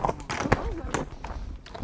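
Horse hooves thud and clop at an uneven walking pace as horses are led back to their pasture after a ride, a handful of fairly loud steps, with some faint vocal murmuring mixed in the background.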